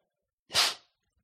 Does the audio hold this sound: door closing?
no